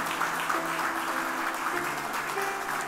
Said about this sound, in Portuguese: Ele não veio, mas vamos aplaudir.